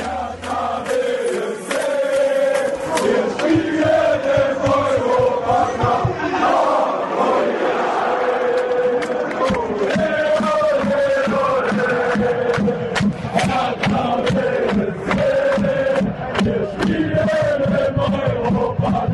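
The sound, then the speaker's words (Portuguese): A large crowd of Hertha football supporters sings their version of a song as a chant together in unison, the melody rising and falling steadily over loud, continuous stadium noise with no individual speaker. “Mas vamos ouvir então a torcida aí do Hertha cantando essa versão.”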